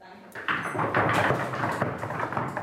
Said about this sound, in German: Am Ende der Reden gibt es im Debattierclub keinen Applaus, aber ganz akademisch Klopfbeifall auf der Tischplatte.